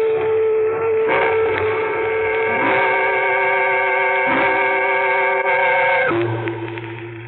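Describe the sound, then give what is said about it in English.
A train passes close to a home, its whistle blaring in a long, sustained chord that shifts pitch a few times over a low rumble of the engine, loud and near, with no voices. “Hey, hear that? the train close to your home, just as I heard her say.”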